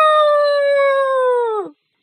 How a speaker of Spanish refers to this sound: Temblaba cada vez que las hojas crujían, y cuando un somnoliento pájaro graznó, pegó un brinco en el aire y aulló.